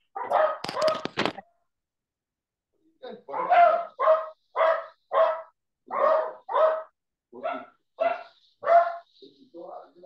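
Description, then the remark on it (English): Dogs bark in a steady run of about a dozen sharp, loud barks after a brief burst of rattly noise at the start, with short gaps between barks, as the dogs are being put outside. “just a minute, I'm going to kick my dogs out.”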